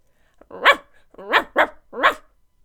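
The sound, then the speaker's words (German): A dog named Bailey barks four sharp barks in an uneven pattern: one, a pause, two in quick succession, then a final one. No one speaks. “Bailey hat gehört, dass das erste irdische Lebewesen im Weltraum die Hündin Laika gewesen ist, und nun möchte er die Erde auch mal von oben sehen.”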